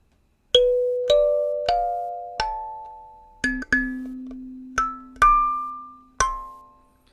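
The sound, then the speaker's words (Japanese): A short kalimba melody of about nine plucked notes, each a bright metallic ping that rings and slowly fades, some notes overlapping over a lower sustained tone, played alone without any voices. “カリンバでハエバルバンバンスタート”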